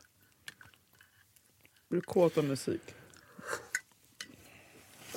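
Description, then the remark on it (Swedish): Wet smacking and slurping as someone chews olives, soft and intermittent, with a brief spoken question in the middle. “Det, det, det slafsas oliver ifall det är någon som undrar.”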